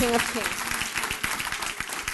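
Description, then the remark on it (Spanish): Steady applause from an audience for the King of Kings, a dense patter of many hands clapping with a brief raised voice at the start, sustained at an even, moderate level throughout. “Él es fuerte aplauso al Rey de Reyes.”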